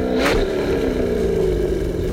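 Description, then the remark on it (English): A car engine revs loudly and steadily, its deep growl rising slightly in pitch, with a brief hissing burst near the start and no voices. “So, let's get revved up!”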